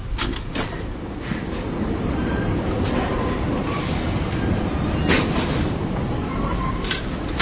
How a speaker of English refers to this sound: Paris Subway. Uh, it's recorded in uh, Metro Station L'Opera.